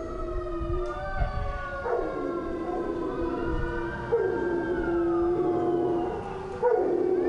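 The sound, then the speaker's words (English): Several dogs howl together in a sustained, overlapping chorus, their drawn-out wavering cries rising and falling without pause for several seconds, fairly loud, with no one talking. “this is dog's park.”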